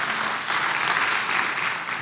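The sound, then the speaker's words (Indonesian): Lively applause from an audience, given for God, a dense, steady patter of many hands clapping at once, sustained and fairly loud throughout with no voices standing out. “Beri tepuk tangan yang meriah buat Tuhan.”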